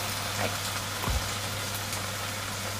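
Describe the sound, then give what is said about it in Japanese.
Tomato sauce poured over fried nuts and shimeji mushrooms sizzles in a frying pan, a steady crackling hiss that holds throughout, with a low constant hum beneath it and a single soft thud about a second in. “今ね炒めたナッツとしめじの上にトマトソースをぶち込みますのでちょっとジュージュー言いますよ”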